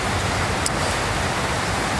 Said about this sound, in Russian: Э, дождь, очень сильный, сильный дождь.